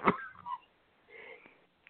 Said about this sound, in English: Okay, I'll I'll talk while you cough for a second.